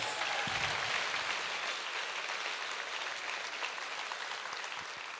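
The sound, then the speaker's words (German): Sustained audience applause for a speaker who has just spoken before many people, a dense steady wash of many hands clapping at a fairly loud, even level throughout, tapering only slightly toward the end, with no voices heard. “das so vor so vielen Menschen macht, ist nochmal dein Applaus.”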